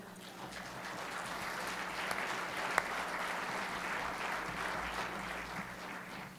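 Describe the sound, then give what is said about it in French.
An audience applauds steadily for several seconds during a sermon in Laval, a dense wash of many hands clapping at once, even in loudness, with one sharper clap standing out midway. “Tu peux d'avance taper des mains.”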